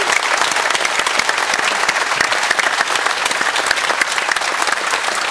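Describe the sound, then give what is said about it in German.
Steady applause from an audience, sent toward 'Kaiser', a dense wash of many hands clapping at an even, loud level for about five seconds with no speech over it. “Dann schicken das wir doch mal einen Applaus, ja.”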